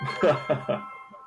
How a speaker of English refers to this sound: That's my phone ringing.